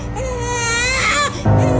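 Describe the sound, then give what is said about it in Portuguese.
A sick baby cries loudly in one sustained wailing breath, ending in a shorter, strained cry; no talking is heard. “Agora o bebê está doente e os pais preocupados.”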